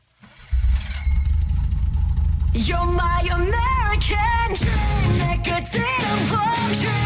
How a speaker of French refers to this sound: T'entends le son de moteur au début.